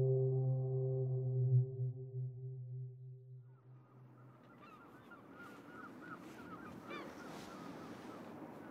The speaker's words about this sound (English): Fog horns in the house like a groundswell, the sound of childhood in the dark of early morning. Fog in your eyes, in your hair. Fog horns that come from somewhere deep down, the unnerving fog, the blood pulse.